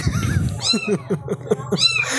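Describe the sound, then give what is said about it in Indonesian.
A cat meows in a quick run of short, repeated cries, sounding insistent and fairly loud, with a low rumbling background noise at the start. “iya ini ada kucing di sini guys”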